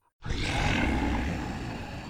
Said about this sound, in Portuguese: Rosnou o lobo, dormindo profundamente